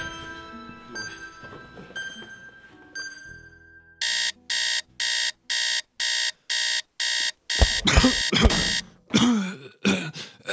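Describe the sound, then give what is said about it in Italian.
After a few soft chiming tones, an alarm clock goes off with loud, evenly spaced electronic beeps, about eight in a row, followed by rustling and a groaning voice. “Dannata sveglia, sono, sono sveglio, lo so ormai non mi serviresti nemmeno più.”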